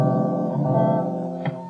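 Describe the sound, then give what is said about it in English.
A collapsible guitar whose sound box is replaced by a balloon rings out a sustained, humming chord, followed by a brief second pluck near the end. It is moderately loud, with no talking. “So I made this device in which the sound box is replaced by a balloon. This is the sound with the balloon”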